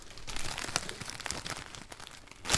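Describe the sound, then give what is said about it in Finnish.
Plastic wrap or packaging crinkles and rustles steadily for a few seconds, with scattered sharp crackles and a brighter crunch near the end as a food package topped with dill sprigs is folded shut, to go into the refrigerator for a day. No one speaks. “Joo, paketti kiinni ja vuorokaudeksi jääkaappiin.”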